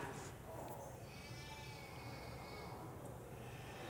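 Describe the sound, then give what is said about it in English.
Sheep bleat in drawn-out, wavering cries that overlap one another, fairly quiet and set against a steady rustling, outdoor-sounding background. “Now, just picture this we are the sheep, right?”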